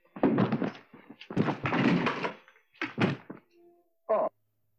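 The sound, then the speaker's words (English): A series of heavy, dull thumps like punches landing, followed by a clattering crash as someone falls over in a chair, then one last short thud, fairly loud. “was it uh, Martin Mull getting punched and I, then falling over in the chair?”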